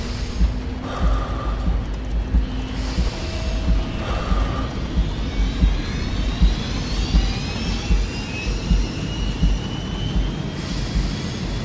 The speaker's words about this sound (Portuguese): Boa noite, bem-vindos a bordo do voo 131 da TAP, com destino a Faro. O avião vai descolar dentro de momentos. Agradecemos que apertem os cintos de segurança.